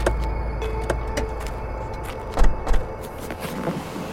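People climbing into a car: a few dull thuds of doors shutting, with faint rustling and mechanical clicks over a low, steady background rumble, no one speaking. One person takes the front seat beside the driver and another sits in the back.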